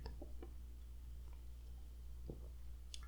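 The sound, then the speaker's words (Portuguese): Someone takes a small sip of bad beer, with faint wet lip smacks and a few soft clicks and a swallow over a low, steady hum. No one speaks. “Eu tô tão animado que eu vou até dar um golinho na cerveja ruim.”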